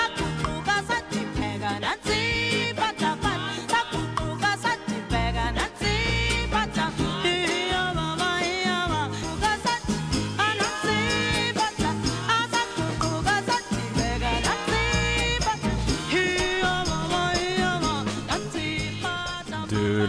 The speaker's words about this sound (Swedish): Alltså hur bra är inte den här låten? Jag sitter och dansar.